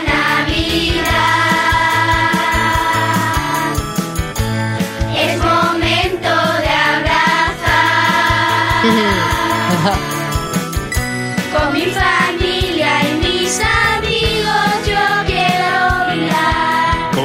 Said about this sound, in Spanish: Nos vamos a Málaga, Rincón de la Victoria, Colegio Novascula Ñoreta. Aquí está el villancico, todo esto pasa en Navidad.